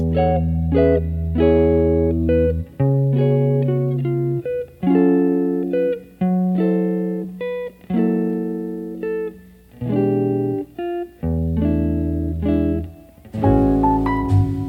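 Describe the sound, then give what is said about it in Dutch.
A jazz song playing from a record out of a personal record collection: slow, sustained melodic notes rising and falling in long phrases, steady and fairly loud, with no talking over it. “Laten we gaan luisteren naar eh, een stuk uit mijn platenkast, als het mag.”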